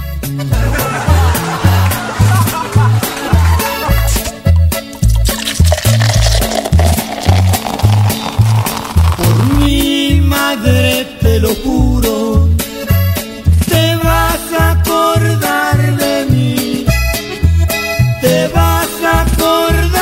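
A lively song plays on a radio station in Tijuana, loud and continuous, with a steady bouncing bass beat under bright melodic instruments, and a singing voice seems to join partway through.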